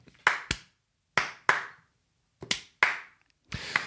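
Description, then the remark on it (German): Slow clapping by a single pair of hands: about seven sharp, crisp claps with gaps between them, often falling in loose pairs, with no talking. “Punkt in Klammer steht auf und klatscht langsam.”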